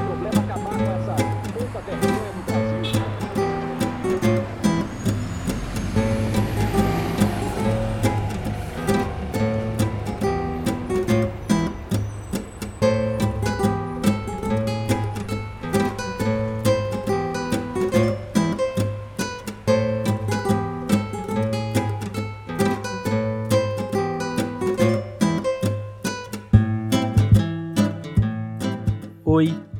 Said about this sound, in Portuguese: o violão que você está ouvindo é do …